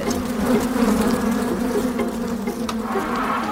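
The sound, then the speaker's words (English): A dense swarm of agitated bees, erupting from an occupied hive knocked by a thrown stone, buzzes continuously and loudly, a thick droning hum with shifting pitch and no pauses, with no voices present. “seeing those elephants running away from real, really disturbed bees”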